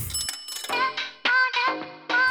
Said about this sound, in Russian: Монетки, монетки зазвенели.